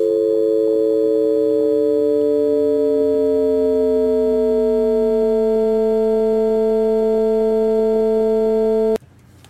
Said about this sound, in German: Dass wir eben schön so, also aus, aus der Unterbrechung wird langsam ein Ton, wenn ich die Frequenz langsam erhöhe. Ich weiß nicht, sollen wir es nochmal anhören oder? Ja, lass nochmal laufen. Jetzt, wo man weiß, was passiert. Ab jetzt ist ein Ton.